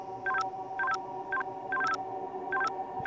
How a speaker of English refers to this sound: It wouldn't stop. I start crying. I don't remember how many times it beeped before it finally stopped. Way more than 10.